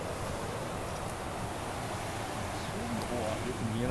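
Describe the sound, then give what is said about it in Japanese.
Continuous rushing roar of rough surf breaking along a coast on a day of fine weather, steady and fairly loud throughout, with wind noise mixed in and faint voices near the end. “今日天気いいので、はい、ちょっと波は荒れてますけど”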